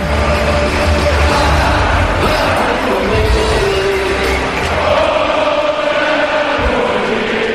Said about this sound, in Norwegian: Og det står 3-0 på Aker stadion! Kom igjen, vi skal synge sammen med publikum! 3-0!